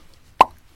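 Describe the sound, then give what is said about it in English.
A single short, wet plop with a quick squirting pop at its start, fairly loud, standing alone against near silence with no voices. “that's the sound of a neuro squirt.”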